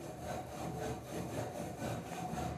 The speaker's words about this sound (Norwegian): Det files rammer på Sandnes sykkelfabrikk.